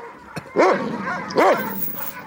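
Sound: dog barking loudly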